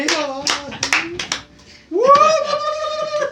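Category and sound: crowd, applause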